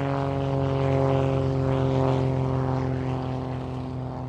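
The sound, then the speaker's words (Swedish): A 1930s propeller airplane drones steadily overhead, passing over a desert landscape, its engine hum loud and continuous with strong harmonic tones throughout the short stretch with no voices. “Det gör ingen inte förrän militära och civila piloter passerar över ökenlandskapet med flygplan under 1930-talet.”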